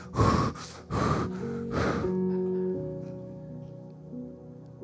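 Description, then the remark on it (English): A person imitates heavy breathing on the phone with four loud, rhythmic, breathy gasps, then a sustained organ-like musical tone fades in and lingers underneath. “Breathing on the phone.”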